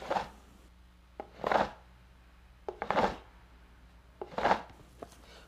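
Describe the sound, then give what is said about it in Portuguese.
An upturned cup, mouth facing down, is knocked and then scraped across the floor in a repeating pattern: sharp taps followed by short rubbing swishes, fairly loud, with no talking. “O primeiro é o som de bater com o copo no chão, com a boca virada para baixo. O segundo é o som de esfregar o copo no chão.”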